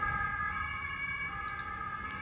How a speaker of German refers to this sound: Ja, jetzt fährt hier gerade irgendwie der Krankenwagen, glaube ich, vorbei. Ähm, sorry für die Störung.